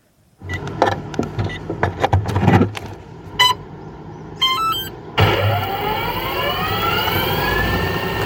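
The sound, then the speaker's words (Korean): Clicks, clatters and short electronic beeps as a drone instructor fits the battery and readies a drone before flying it, then its motors whine up into a loud, steady buzzing hum with rising tones that holds to the end. “드론을 가르치기 전에 배터리 장착하고 이 날리기 전에 준비하는 과정을 녹음하셨다고 하는데 너무 궁금합니다.”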